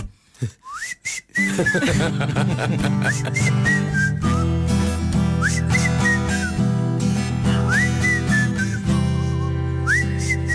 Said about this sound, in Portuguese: Comecei a assobiar para o lado e hoje estou com um processo de divórcio Tá?